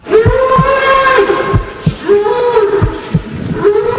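A bull being slaughtered in a spectacle for spectators' entertainment cries out in loud, drawn-out, strained bellows. There are three long harmonic wails that swell and sag in pitch, with dull low thumps between them and a constant murmur beneath.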